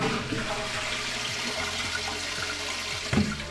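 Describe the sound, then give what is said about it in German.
A toilet flushes, a steady rushing gush of water with gurgling swirls that continues throughout, ending with a brief louder clunk near the finish. No one speaks. “Dann natürlich, ja, muss jeder mal wahrscheinlich, kennen sie alle.”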